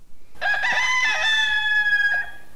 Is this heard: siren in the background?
no